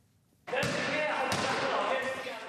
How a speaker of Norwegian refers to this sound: Ballene spretter overalt i gymsalen. Elevene i 8B på Haugerud skole i Oslo er så ivrige i gymtimen at de ikke vil ha friminutt engang.